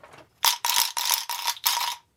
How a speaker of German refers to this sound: Dann gibt es auch noch so Ratschen.